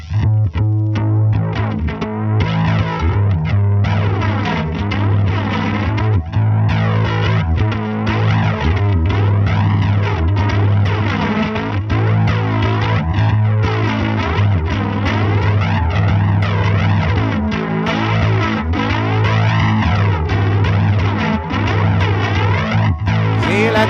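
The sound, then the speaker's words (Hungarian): A live instrumental rendition of an old theme song, played as a closing on the Partizán stage: loud, continuous music with a heavily effected, distorted, chorus-laden tone over a steady low drone, with swooping, bending melodic lines and no voices. “most a Partizán színpadán nagyon sokan kértitek gyakorlatilag az évad eleje óta, hogy hozzuk vissza a korábbi főcímdalunkat, úgyhogy most zárásként egyszer és utoljára a Partizán színpadán”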